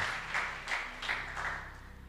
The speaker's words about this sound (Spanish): Dale ese aplauso al Señor y acabamos.